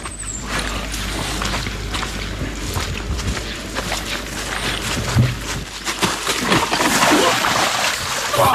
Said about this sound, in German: Ähm, es, es hört sich alles sehr feucht an, es hört sich nach einem großen Platsch an.